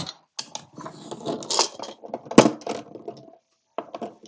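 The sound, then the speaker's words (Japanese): Small glass nail polish bottles clink and rattle as they are set down and shuffled into a drawer, with a sharper knock near the middle and a brief pause before a few final taps. “このね、ネイルを引き出しにしまってるんですよね。”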